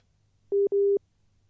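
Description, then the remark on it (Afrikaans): Two beeps of a phone call tone, like a dropped connection, each a steady mid-pitched hum, during a phone interview on a radio programme that sounds like a WhatsApp call. The first beep is short and the second longer, with a brief gap between them and faint hum underneath. “Dit klink vir my soos 'n WhatsApp oproep daar.”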